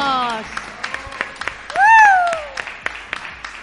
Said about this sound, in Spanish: Sí, sí, sí, sí, el placer. Un aplauso. un aplauso.